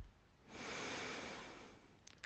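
One long, deep breath drawn slowly through the mouth into the belly with eyes closed, a soft airy rush that swells and fades over about a second and a half, fairly quiet, followed by a couple of faint clicks.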